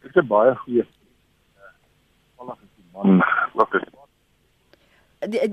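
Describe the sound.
A man speaks over a thin, band-limited phone line that keeps dropping out, his voice coming through in short choppy bursts separated by abrupt silences.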